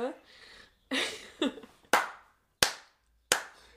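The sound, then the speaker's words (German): A handful of sharp hand claps ring out one at a time at a slow, steady pace, a slow round of applause by a single person, with a brief murmur of voice before them. “Muss mal ganz kurz äh, einen Applaus machen”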